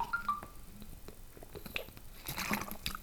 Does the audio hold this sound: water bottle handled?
yes